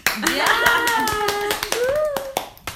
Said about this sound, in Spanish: Aplausos para todas.